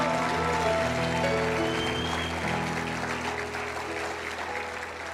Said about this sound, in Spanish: Dele un fuerte aplauso al rey esta mañana.